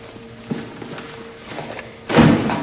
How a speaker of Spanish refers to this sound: se descuelga el bolso y lo lanza hacia la silla.